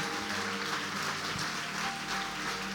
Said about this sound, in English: Come on, let's give the Lord a big clap. Amen.